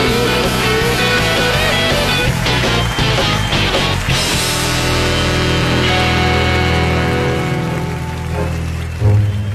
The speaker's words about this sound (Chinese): 现在是大明脱口秀时间，掌声欢迎我们敬爱的大明！